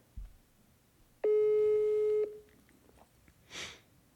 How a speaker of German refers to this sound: Jo, jo rufe jetzt Alex an nebenbei, aber der geht nicht dran.